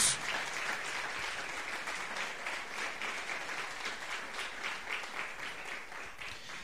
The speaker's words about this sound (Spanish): Le damos un aplauso al sumo sacerdote, que es el Señor. Gloria a Dios.